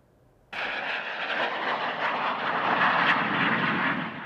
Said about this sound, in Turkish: E, iki ülkenin bizim ülkemiz ve Azerbaycan'ın ortak düzenlediği Turkuaz Kartalı 2020 tatbikatında F-16 uçakları taktiksel uçuş gerçekleştirdi.